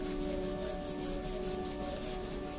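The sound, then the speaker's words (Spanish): Palms rub briskly together to warm them, in a steady back-and-forth rhythm, a continuous dry swishing friction that stays fairly loud for the whole stretch with no voices over it. “Eh, cuando sintamos nuestras palmas calentitas, como siempre llevamos nuestra mano derecha al corazón, nuestra mano izquierda la llevamos a nuestro ombligo.”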